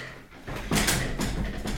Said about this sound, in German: Der Stuhl, der knarrt so doll.